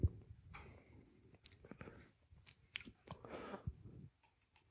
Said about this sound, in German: Das Mikro ist so nah, dass man heute hören kann. Man könnte einen Mund schmatzen hören.